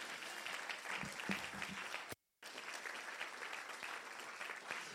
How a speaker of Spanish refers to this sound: ¿Cuántos dicen amén? ¿Cuántos le dan un aplauso fuerte a Jesús?